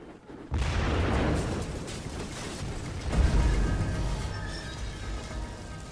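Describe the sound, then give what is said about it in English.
A sudden explosion in a building, where a vapor cloud of gas escaping from a pump ignited, bursts in after a brief quiet moment. A sustained loud rumbling roar follows as fire spreads, with a second heavy blast about halfway through as the noise slowly fades. “Apparently, an explosion occurred and fire was spreading through the building.”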